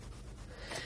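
Soft rustling and brushing of two skeins of Pickles Pure Wool yarn being handled right in front of the microphone, a brief, breathy swish with a slightly louder rub near the end and no talking.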